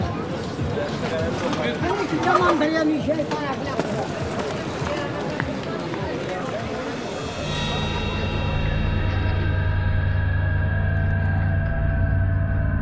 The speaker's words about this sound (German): Zwei Ecken weiter das verwinkelte Hafenviertel mit algerischen Lebensmittelgeschäften und Friseuren neben tunesischen und marokkanischen Restaurants. Die Gassen sind eng und voller Menschen. Marktschreier, Feilscher, Stimmung wie auf einem Bazar.